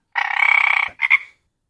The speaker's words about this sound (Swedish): Ja, här kommer grodan.